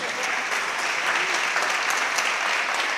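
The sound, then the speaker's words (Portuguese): A church audience claps steadily and densely, applauding Jesus during a sermon, a continuous wash of applause that stays loud and even from start to finish, with no talking heard. “Diga amém e dá um aplauso a Jesus por isso.”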